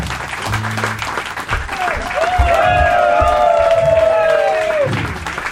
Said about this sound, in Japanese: 拍手でお迎えくださいドミノスターズの皆さんです